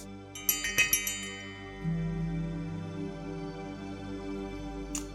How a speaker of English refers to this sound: I'm going to go ahead and ring our bell, getting us into our present moment.